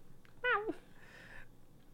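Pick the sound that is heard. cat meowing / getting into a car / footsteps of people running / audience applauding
cat meowing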